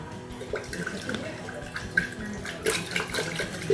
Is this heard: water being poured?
yes